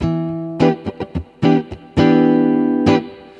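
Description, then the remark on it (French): An electric guitar plays a rhythm exercise of chords alone: a series of sharp strums muted and cut off short so they do not ring, then a chord left ringing for nearly a second before a final strike. “Ça veut dire vraiment qu'il faut couper le son, il ne faut pas laisser résonner.”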